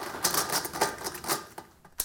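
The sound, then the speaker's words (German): Rapid plastic clicking and clacking of a puzzle cube being twisted nonstop, with a steady stream of sharp turns and no voices. “trüllt nonstop an seinem Würfel umeinander.”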